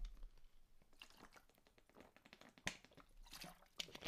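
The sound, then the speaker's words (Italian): Quiet slurping and swallowing sounds of someone taking a few sips of water, with small wet liquid noises and soft clicks, no talking. “Ma prima di, eh, prima di commentare devo bere un goccio d'acqua.”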